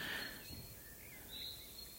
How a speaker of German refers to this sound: U-Bahn, Bus und Shuttlebus hört man jetzt nur noch die Stille. Unterbrochen lediglich von Grillenzirpen und Vogelzwitschern.